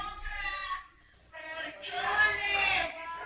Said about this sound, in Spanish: pasando el fierro por si lo llegan a escuchar. ¿El de los fierros viejos? Mis perros le ladran un chingo a esos güeyes.